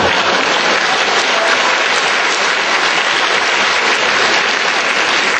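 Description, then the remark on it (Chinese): An audience of students claps steadily and loudly, a dense wash of many hands applauding without letting up for the whole stretch, with no voices breaking through. “这个鼓掌的我都不知道是男同学女同学了哈，这个可能是男同学比较多一点哈，这个女同学要理解哈，他们迫切的想法。”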